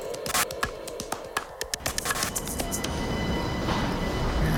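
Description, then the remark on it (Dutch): Busy rail station ambience at Brussels-South station in Brussels, Belgium, the largest station of the Belgian rail network and an international hub: a rapid series of sharp metallic clacks and taps, like wheels over track joints, settling into a steady rumbling wash of a train rolling past. “Brussel-Zuid, het grootste station van het Belgische spoornet internationaal knooppunt ook, met treinen naar alle uithoeken van Europa.”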